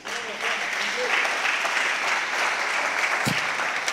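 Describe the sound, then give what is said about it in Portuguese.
An audience breaks into applause, dense, steady clapping that swells quickly and holds at an even, fairly loud level for several seconds, with one sharp thump near the end. “Dá um aplauso aí.”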